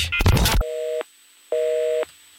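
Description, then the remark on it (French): After a brief rough burst of line noise, a telephone busy tone sounds as a call hangs up during a Fun Radio show: two steady, mid-pitched beeps of about half a second each, separated by an equal silence. No one speaks. “Ah, ça a raccroché”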